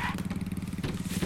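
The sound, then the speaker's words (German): A motorcycle engine in a video game runs with a steady, throbbing putter, fairly loud, its pitch wavering slightly over a brief moment with no voices present. “Das ist mein Motorrad.”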